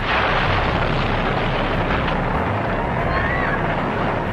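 The Hindenburg airship, 245 metres long and held aloft by 200,000 cubic metres of hydrogen, explodes into flames and crashes to the ground: a dense, continuous roar of rumbling fire and noise, loud and unbroken for several seconds with no distinct separate blasts.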